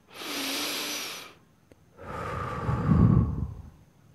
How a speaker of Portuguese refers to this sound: você vai fechar seus olhos, colocar a mão no seu peito, fazer uma respiração muito profunda, assim.